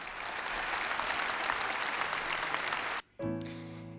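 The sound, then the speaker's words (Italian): An audience applauds steadily with dense, crackling clapping for about three seconds; it cuts off abruptly, and after a brief silence music with sustained, ringing tones begins. “Gli dedichiamo questi applausi.”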